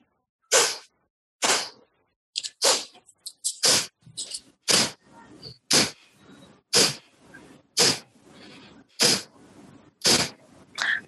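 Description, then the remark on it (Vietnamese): Sharp, forceful breaths through the nose repeat in a steady rhythm during a slow breathing exercise, about one every second. Each exhale is loud with a hissy, airy rush, and no one speaks. “cảm nhận âm thanh được tạo ra nơi đầu mũi thở thở thở giống như thể mình đang tống hết tất cả những cảm xúc bực bội khó chịu”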